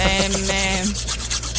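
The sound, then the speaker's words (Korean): Nail filing at a one-person nail art salon, recorded with a customer: a steady high electric whine for about a second, then a run of quick, rhythmic rasping strokes. Loud, with no voices. “오늘은요, 1인 네일 아트샵에서 손님과 함께 소리를 녹음해서 보내주셨습니다.”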